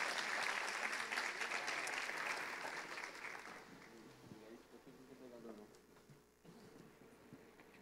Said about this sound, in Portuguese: Vamos aplaudir ao Senhor, esse grande homem de Deus.